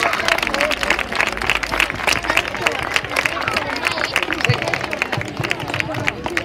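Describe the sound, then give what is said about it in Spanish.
An audience applauds the children's messages about recycling. Dense, steady clapping fills the whole clip, mixed with some crowd murmur and scattered voices underneath. “Pues un aplauso.”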